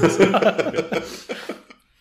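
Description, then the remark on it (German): A person clears their throat in a string of short, rough vocal bursts, loud at first and then tapering off into silence. “Jetzt muss ich mich äh, noch dreimal räuspern hier.”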